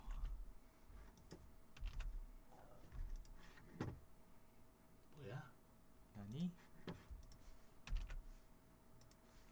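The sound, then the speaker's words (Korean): Irregular clacking of keys on a computer keyboard whose keys have stopped registering, sharp clicks in uneven bursts, with brief vocal sounds and murmurs mixed in partway through. “키가 안 먹어. 아 키보드가 꺼져.”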